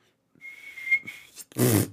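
A person tries to whistle, producing one thin, breathy, wavering note held for about a second, followed by a short, loud burst of breathy noise, like an exhale or stifled laugh.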